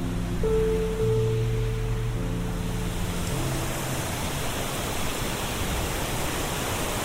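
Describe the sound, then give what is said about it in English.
A steady, full roar of water rushing over stones at the Flosh on the River Great Ouse in Buckingham, England, loud and continuing unbroken throughout, with a faint low hum in the first few seconds and no voices. “So you can hear this fantastic roar of the water.”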